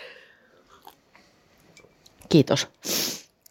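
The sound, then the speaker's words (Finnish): Two quick, harsh coughs from a dust particle in the throat, followed by a breathy, rasping exhale, after a short spoken word and a quiet stretch. “musta tuntuu, että mulla on joku pölyhiukkanen mm. täällä kurkussa.”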